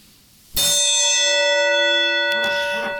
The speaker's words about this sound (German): Gong. Muss ich jetzt hundertmal gongen? Um Gottes Willen, bitte nicht. Okay. Ich versuche einen sehr schönen Gong zu machen.